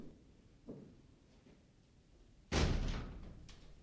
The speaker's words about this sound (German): Ich schloss die Tür